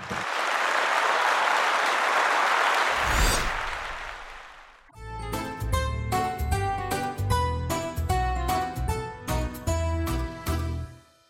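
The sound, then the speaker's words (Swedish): A burst of applause from a crowd, dense steady clapping for about four seconds, then cutting into a bright, upbeat musical jingle with punchy rhythmic hits. “Jag tycker att du ska få en applåd. Det lägger vi in.”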